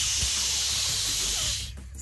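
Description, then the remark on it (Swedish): A strong, steady burst of steam hissing from the hose of a steam ironing station, a broad airy rush lasting nearly two seconds before cutting off abruptly, with faint low thumps underneath. “Och eh, själva slangen uppe nästan, eh, du vet vet som en eh, Tjock, så mycket ånga får man ut.”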